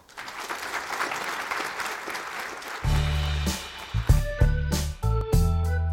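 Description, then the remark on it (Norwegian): An audience claps steadily in a dense, warm wash of applause for about three seconds before a bass-heavy music track starts and takes over. “en varm applaus”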